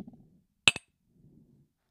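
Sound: teacups clinking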